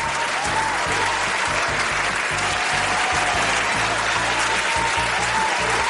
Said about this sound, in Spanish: Bueno, pues nos vamos con los aplausos. Pues vamos con ello.